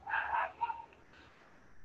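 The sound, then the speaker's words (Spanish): A dog barks a couple of times from somewhere in the background, short yapping bursts at moderate volume, followed by a faint lingering whine and quiet room noise. “Se escucha el ladrido del perro de fondo, lo lamento, gente.”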